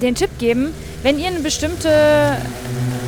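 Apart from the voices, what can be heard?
motorcycle passing by outside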